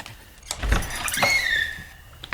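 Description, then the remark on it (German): An apartment door being eased open quietly in the dark during a break-in, a soft low thud of the latch followed by a drawn-out, thin creak that fades away, with no voices. “Die Tür ist ja echt ein Kinderspiel. Leise.”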